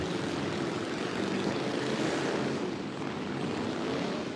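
A steady, loud roar of several motorcycle engines as a motorcycle gang drives by, droning together with a rough low rumble and no voices.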